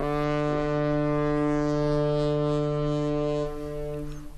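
A deep ship foghorn blasts in one long, steady, loud tone with rich harmonics, holding for over three seconds before easing off and fading at the end.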